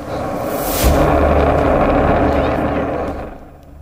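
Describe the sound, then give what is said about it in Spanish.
A seismic air gun, used by the oil and gas industry to search the sea for fossil fuels with sound waves, fires underwater: one sudden, loud, muffled blast that rolls into a long, deep rumbling reverberation before slowly fading. “Estos cañones de aire se utilizan en la industria del petróleo y el gas para buscar combustibles fósiles en el mar mediante ondas sonoras.”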